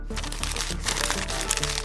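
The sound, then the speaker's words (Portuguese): A newspaper is angrily crumpled up, a dense, continuous crackle of crinkling paper lasting a couple of seconds, with a faint low hum beneath it. “Enfurecido, ele amassa o jornal, joga do outro lado da sala e grita: Aquele homem arrogante!”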